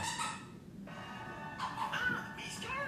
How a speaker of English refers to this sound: All right, you're hearing, you're hearing the, our dogs in the background.